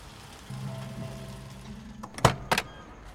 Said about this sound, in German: Kaum ist der Wagen auf dem Parkplatz zum Stehen gekommen, springt der Sohn mit einem Satz aus der Hintertür heraus, geradewegs in den Lidl hinein.